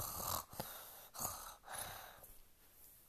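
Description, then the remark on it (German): Soft, breathy snoring repeats in a slow rhythm, a few raspy inhales and exhales, fairly quiet, with no talking. “Jetzt schnarchte sie.”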